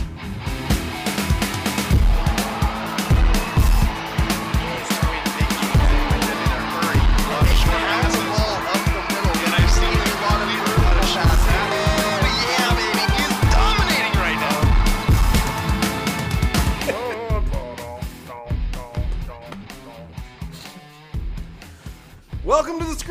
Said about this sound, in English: Oh, that was the intro music.